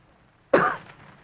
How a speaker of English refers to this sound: After a moment, he gave what he thought was a discreet cough.